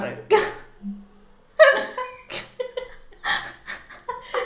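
A small dog snores close up, letting out a series of wheezy, snuffling snorts every second or so, with short quiet pauses between the breaths.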